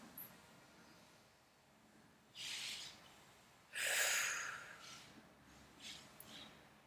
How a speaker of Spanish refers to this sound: entonces si es que pueden, simplemente van a cerrar sus ojos. Tomen una respiración profunda para relajarnos.